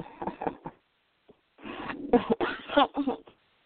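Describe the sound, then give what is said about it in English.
A harsh cough, a short burst followed after a pause by a longer fit of several rough, chesty coughs in quick succession, with no talking. “this cough is not good for me.”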